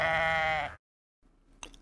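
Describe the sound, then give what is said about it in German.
A single loud sheep bleat with a wavering, nasal tone lasts under a second, then cuts to brief silence before faint rustling noise returns. “Ich mag immer nur das Schaf voll gern.”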